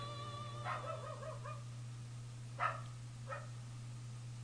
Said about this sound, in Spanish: No me refiero a los perros que son de fondo.